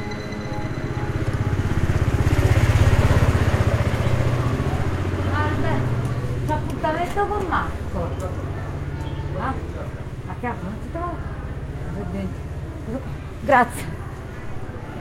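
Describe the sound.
Busy street ambience in San Gregorio Armeno, the street of Neapolitan nativity-scene makers in Naples, Italy: a motorcycle engine rumbles low and steady, loudest early on, while a crowd of voices chatters throughout and a brief sharp clack stands out near the end.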